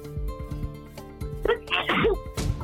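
A loud sneeze from a person with flu bursts out with a sharp inhale and explosive release, followed moments later by a shorter second burst, over a low background hum with no talking.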